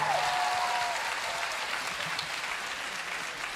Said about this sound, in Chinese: 姐妹应该要拍手吧？姐妹要拍手。